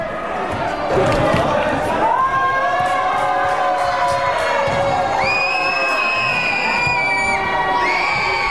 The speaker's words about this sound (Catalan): Podemos escuchar el público de Gabriel no está nada de acuerdo y abuchean al jugador que lanzará los tiros libres.